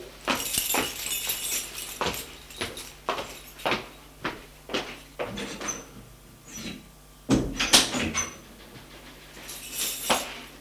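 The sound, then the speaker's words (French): Metallic clicks and jingles as a woman works her key in the lock of her office door, followed by a louder clunk of the latch and the door swinging open; no voices. “avec sa clé, va ouvrir la porte de son bureau.”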